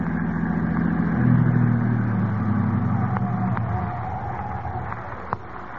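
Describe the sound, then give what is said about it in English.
A car engine hums as the vehicle is driven off the road to park, at four o'clock in the morning, its low drone shifting in pitch, with a few light bumps and knocks from rough ground toward the end. “I'll drive the car off the road.”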